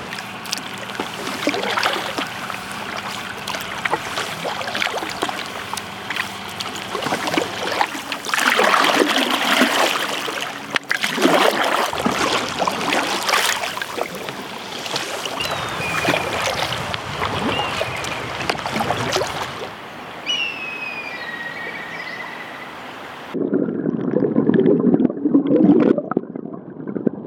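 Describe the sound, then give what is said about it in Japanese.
A kayak glides down the clear Naka River in the morning, paddles splashing and dipping in an irregular rhythm over steady flowing water, with faint bird chirps briefly audible and a heavier splash near the end. “今朝は清流中川を下るカヤックの爽やかな音色それではお聴きください”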